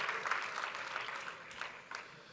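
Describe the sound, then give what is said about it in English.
A crowd applauds steadily, many hands clapping in a dense, crackling wash that holds fairly loud throughout before easing slightly toward the end. No one speaks over it. “Yeah, you clap it up.”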